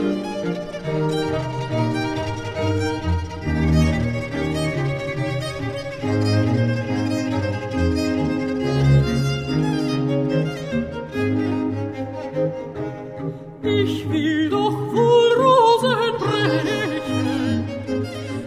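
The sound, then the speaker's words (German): A violin solo in an aria races through a fast, note-dense passage of several hundred notes within three minutes over a steady ensemble accompaniment, the music loud and continuous, growing brighter and busier near the end. “Aber die Geige ist eben verdammt dazu, wie eine stechende Rose zu spielen.”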